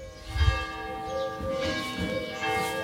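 A church bell rings steadily at 8:33, tolling for three minutes, with long, shimmering overtones that overlap and sustain, a rich metallic tolling heard fairly clearly with no talking.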